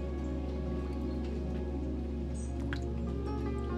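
Water drops drip off flower petals and leaves after watering on a hot day, in soft, irregular patters, scattered, over a steady low background hum with no voices.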